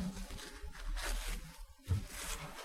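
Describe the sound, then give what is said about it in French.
Dry rustling and crinkling of a sheet of paper being handled, with scratchy swishes and a brief tearing-like burst near the end, no voices. “Can you see this paper?”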